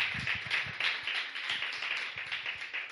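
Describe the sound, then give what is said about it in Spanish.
Sustained applause from a large crowd giving a loud round of applause to the Lord, a dense wash of many hands clapping at once with no voices, steady and fairly loud for a few seconds. “¿Cuántos pueden darle un aplauso fuerte al Señor todavía?”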